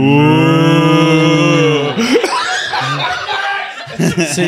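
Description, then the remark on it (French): A person imitates a cow, holding a long, low, steady moo for about two seconds, followed by chuckling and lively voices talking and laughing. “Tu sais, sa languette, ça fait la vache, fait.”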